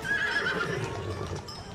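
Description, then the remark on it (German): A horse whinnies with a high, wavering neigh while hooves clip-clop steadily underneath, the sounds fairly loud and continuous with no talking. “die ist ja dann einmal vom Ross runtergefallen, weil die Ross schon scheichern, also so ist das nicht.”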